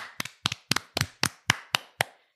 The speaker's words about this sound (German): Ihr habt es geschafft, da kann man mal klatschen.